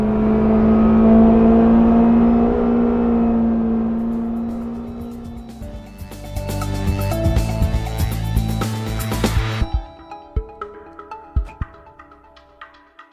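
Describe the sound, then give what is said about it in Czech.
A Škoda Fabia RS Rally 2 rally car, the fourth-generation rally Fabia, driven by Finnish rally driver Emil Lindholm, roars loudly, revving and accelerating with a rising harmonic whine, then breaks into rough bursts, pops and sharp cracks as it lets off, with no talking. “Tak takhle to zní, když vám finský rallyový jezdec Emil Lindholm předvádí novou Fabii RS Rally 2, čtvrtou generaci rallyové Fabie.”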